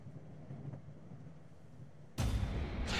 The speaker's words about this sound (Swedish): Du känner plötsligt hur tåget rycker till och accelererar med en kraftig ryck så du liksom känner hur du är på väg att kastas omkull.